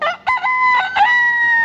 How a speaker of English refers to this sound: 如果这只鸡变成了一只大公鸡，那它就要打鸣了，它的声音就会变成